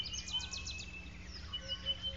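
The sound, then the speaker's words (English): A superb starling gives a rapid run of harsh, high-pitched warning shrieks of danger on the ground, several notes in quick succession, over a low, steady background rumble. “The bird shrieks a warning, shh, danger on the ground, and the monkeys repeat it using their own term, and everyone runs for it.”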